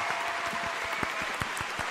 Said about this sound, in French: Je suis seule avec moi-même pour applaudir. N'hésitez pas à faire de même chez vous, applaudissez.